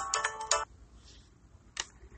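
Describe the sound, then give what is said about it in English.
A phone ringtone chirps a quick burst of bright electronic notes, then falls quiet, with one short tone blip a moment later. It's fairly faint, with no one talking. “That is a ringtone you are hearing in the background.”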